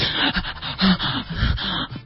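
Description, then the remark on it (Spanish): A person imitates a series of choking gasps, short strained breaths drawn in sharply, like suddenly waking from sleep unable to breathe during sleep apnea; moderately loud, with no talking. “o sea, que te ahogas, que me, que sientes que no respiré, eso?”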